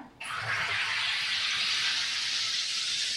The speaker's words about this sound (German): Und heute habe ich natürlich einen Wassersprudler, wo man die Wasserflasche einfach einschraubt. Warte, warte, das, das, das Erlebnis, ja?